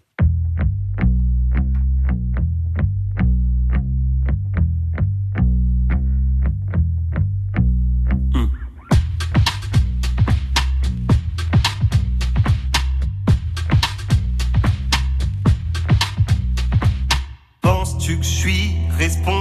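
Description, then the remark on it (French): A song begins with steady rhythmic plucked or keyed notes, then a fuller band with effected guitar kicks in around nine seconds, playing loud and continuous with a brief drop near the end. “Notre invité choisit un titre de son choix.”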